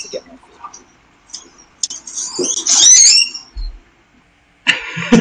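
Grackles calling in a research experiment video, in which a grackle touches a light square to get food from a hopper: a run of harsh, creaky squeaks and rasping high whistles in several loud bursts, separated by soft clicks and a brief low thump.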